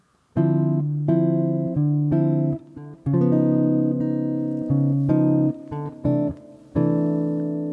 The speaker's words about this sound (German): Ich habe jetzt gespielt D-Moll 7, 9, G7, B13 nach C6, 9 der Tausch G7 aus durch den Tritonusvertreter.